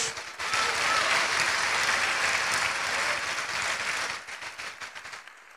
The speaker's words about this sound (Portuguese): Você pode dar uma salva de palmas para o nosso Deus?